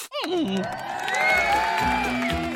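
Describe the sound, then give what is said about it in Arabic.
A loud crowd cheers and whoops throughout, a dense wash of excited voices with rising shouts near the start, sustained for a few seconds without any single clear speaker. “أين التصفيق والهتاف؟”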